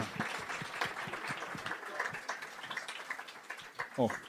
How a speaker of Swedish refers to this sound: Tack. En applåd.